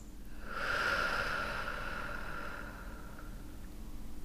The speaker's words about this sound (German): einmal mit mir gemeinsam ganz, ganz tief einatmen. Und wir atmen aus.